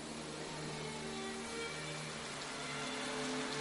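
Torrential rain hisses steadily at nightfall over a low, droning engine rumble as a bus pulls up and stops, idling, the noise staying even and continuous throughout.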